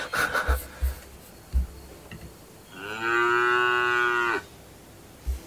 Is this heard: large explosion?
no